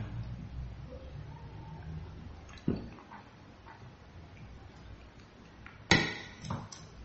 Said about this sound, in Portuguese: Deixa eu tomar água que está falhando a voz,